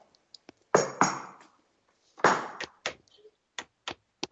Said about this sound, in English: i'm going to knock twice on the table um, and see if you reply